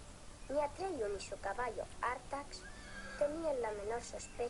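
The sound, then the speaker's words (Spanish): A white horse whinnies several times in quick succession, shrill, quavering neighs that rise and fall, loud over a steady background hiss. “El caballo le está diciendo, oye, levanta, que estaba durmiendo, ¿sabes?”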